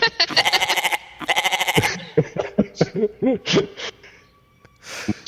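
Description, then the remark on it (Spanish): A human voice imitates a mountain goat's bleat in two long, loud, quavering bursts, followed by scattered laughter and short vocal noises. “Eh, iba a decir cabra monte, pero igual.”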